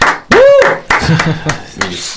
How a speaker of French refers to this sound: Bravo, bravo, encore une fois. Allez, on applaudit. Ah oui, franchement.